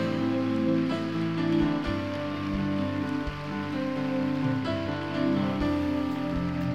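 An audience applauds those who gave their lives to Jesus that night, a dense patter of many hands clapping at once over sustained organ-like music, loud and unbroken for several seconds.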